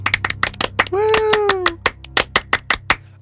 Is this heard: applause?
yes